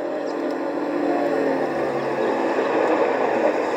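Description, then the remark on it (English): A bus pulls away from a bus stop, its engine rumbling and whining steadily as it drives off, a continuous mid-range drone that stays fairly loud throughout, with no voices. “Uh, but it looks like you just missed the bus.”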